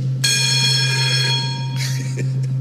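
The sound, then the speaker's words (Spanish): An old school bell, dating from the era of the century-old building of the first high school in Río Grande and still in use, rings loudly and steadily for about a second and a half, then cuts off abruptly, leaving a low, constant electrical hum and faint background noise. “Todavía sirve el timbre.”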